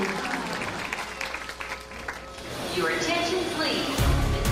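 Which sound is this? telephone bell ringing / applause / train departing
applause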